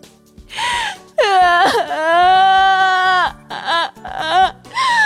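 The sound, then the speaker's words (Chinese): A child wails loudly in several bursts: a short cry, then a long, high, wavering sustained wail, followed by choppy sobbing cries and another rising wail. It is likely a performer voicing the story character Toby crying loudly. “当呼噜怪的背影彻底消失后，托比放声大哭。”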